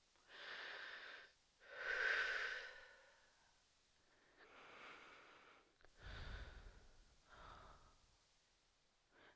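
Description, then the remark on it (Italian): Slow, deep breaths drawn in and pushed out, about five long airy breaths in a steady rhythm with brief pauses between, and no talking. “Respira.”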